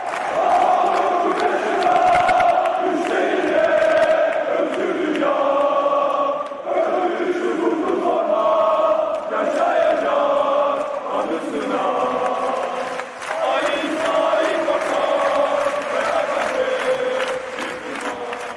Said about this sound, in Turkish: Mesela yıllardır Fenerbahçe taraftarı Ali İsmail Korkmaz için de bağırır.